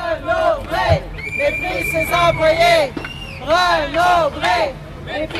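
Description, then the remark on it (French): A crowd of strikers on a picket line at a bookstore branch in Côte-des-Neiges chants and shouts together in repeated rising bursts, loud, with a sustained whistle-like tone cutting through and general babble underneath. “Loïc Bully s'est rendu sur le piquet de grève de la succursale de la Côte-des-Neiges pour en savoir plus sur cette mobilisation”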